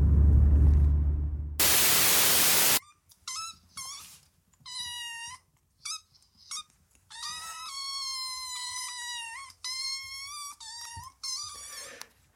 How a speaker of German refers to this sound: das, was ein bisschen so klingt, als wäre ein Asthma-Patient in seinen letzten Zügen, sind die beiden Minikatzen, die äh, gerade eben mal so tun, als hätten sie seit 16 Tagen nichts gegessen.